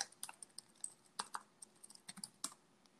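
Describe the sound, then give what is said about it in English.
Quick, irregular keystrokes clatter on a computer keyboard as a Google search is typed, a fairly quiet burst of clicks and taps lasting a few seconds with no voices. “If you can hear me typing, I'm just giving it a quick Google search.”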